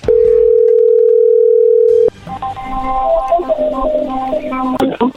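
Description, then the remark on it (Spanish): A steady, loud telephone dial tone hums for about two seconds, then cuts off abruptly into a quieter, busier stretch of shifting tones as the call connects and rings. “la viste hace poquito va a marcar el lobo, no haga ruido”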